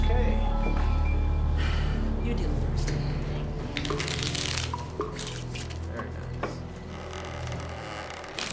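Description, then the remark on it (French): Playing cards are shuffled for a game of cards in a house, in a series of crisp, papery riffling bursts, some longer and some short, over a steady low hum throughout. “Elle décide de jouer une partie de cartes.”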